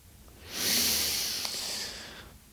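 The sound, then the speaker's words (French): One slow, deep breath drawn in through the nostrils during meditation, an airy, hissing rush of air that swells and holds for nearly two seconds before fading into quiet. No one speaks. “Revenons à la respiration.”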